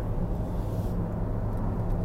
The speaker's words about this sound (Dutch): Ik eh, vind het leuk om even wat te raaskallen in de auto waar ik eh, nu aan het rijden ben.